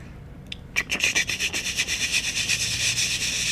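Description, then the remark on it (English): A voice imitates a 70 mm IMAX film projector reel running at the back of a theater, making a rapid, steady clicking rasp that starts abruptly and rattles on continuously, fairly loud and hissy. “You could just hear it going in the back of the theater, and I'm like, how cool is that, dude?”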